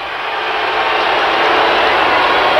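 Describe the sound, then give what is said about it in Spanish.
A large concert crowd at Madison Square Garden boos a performer in a dense, continuous roar that holds steady and swells slightly louder toward the end, with no break and no voices standing out. “Esto en el Madison Square Garden creo que es un minuto y medio, más o menos dos minutos de abucheo.”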